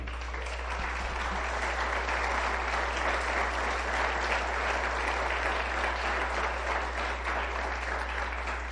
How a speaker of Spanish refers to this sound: Y denle un aplauso al Señor.